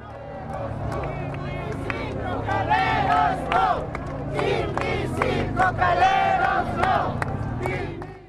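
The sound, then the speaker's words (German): A large outdoor protest march crowd arriving in La Paz chants slogans in loud, rhythmic bursts, calling "Tipnis yes, coca no", many voices shouting together over a constant roar of background crowd noise. “Beim Einzug des Protestmarsches letzte Woche in La Paz waren deshalb von der Bevölkerung Tipnis Ja, Cocabon Nein Rufe zu hören.”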